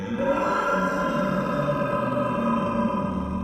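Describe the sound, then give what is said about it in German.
A voice imitates a lion's roar by bellowing forcefully into the narrowest part of a large glass lampshade, producing one long, loud, hollow and resonant growl that holds steady for several seconds. “Löwengebrüll erzeugt man, indem man kräftig in die schmalste Stelle eines großen Lampenschirms aus Glas hineinbrüllt.”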